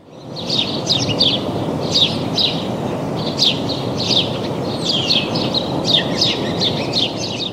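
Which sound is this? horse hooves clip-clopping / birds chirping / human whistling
birds chirping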